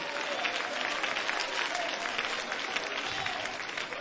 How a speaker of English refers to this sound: And if you really mean that, clap again and praise him. I love praise. I love worship. I love loud praise unto God and he does too.